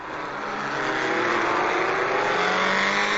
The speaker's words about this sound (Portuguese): Ela ajeitou-se na garupa e Serginho saiu com a moto.